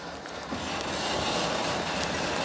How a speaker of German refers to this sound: Wird jetzt über den den Todpunkt von dem Berg drüber ge gedrückt. Und dann kommt die Physik ins Spiel und zieht den Wagen einfach runter.